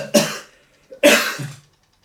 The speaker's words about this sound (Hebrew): אני משתעל הרבה, אבל אני עם המון לך. אני כבר גם אחרי שתי קורונות וחיסונים וכל זה. היום להשתעל זה מפחיד